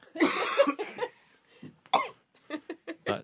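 Loud coughing: a harsh opening cough, a couple of rougher hacks, then a quick string of short, choppy coughs toward the end, with no speech.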